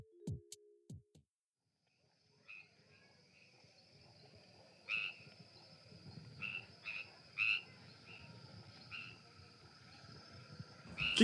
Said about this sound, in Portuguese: que isso que a gente estava ouvindo era sapo?